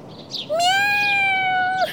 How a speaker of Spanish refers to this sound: ¡Miau! También tiene sueño.